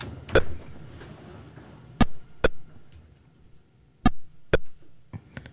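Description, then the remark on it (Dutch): Short electronic bleeps from Pong, the very first video game, arriving in quick pairs about every two seconds like a ball bouncing between paddles, with a faint low hum underneath and no talking. “Dit is het geluid van het... Oh, voilà. Het allereerste videogame.”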